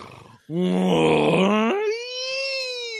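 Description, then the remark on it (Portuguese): A person imitates a friend's snore with a loud, low, rasping voiced groan that abruptly jumps into a thin, sustained higher-pitched wheezy squeak at the end, heard alone. “A gente ficava esperando o Uni dormir só pra ouvir o ronco do Albanês.”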